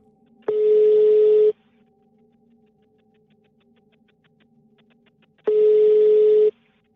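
An outgoing phone call ringing on the line: two steady, buzzy ringback tones about a second long, spaced several seconds apart, clear and close with faint line hiss between and no voices.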